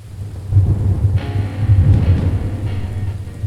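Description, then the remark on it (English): Deep, rolling thunder rumbles steadily through a thunderstorm while rain hisses constantly in the background, with no one speaking. “A good storm is a soul nourishing thing.”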